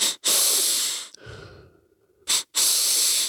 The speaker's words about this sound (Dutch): En hij zegt als je dan eh, twee keer door je neus inademt, één keer kort, één keer heel diep zo.